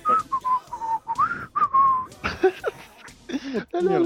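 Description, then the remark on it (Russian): A man whistles a short, wavering melody of several clear notes for about two seconds as he walks off, steady, then a voice starts talking over the rest. “знаете, еще, он когда пошел, такая музыка такая, он насвистывать стал.”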